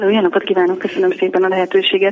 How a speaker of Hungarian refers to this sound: Elnézést, hogyha egy kicsit visszhangzik a hangom, csak beültem egy terembe, és ott tudunk beszélgetni.